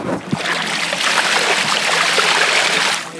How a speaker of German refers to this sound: Und jetzt hören wir mal, dass wir hier wirklich am Wasser sind.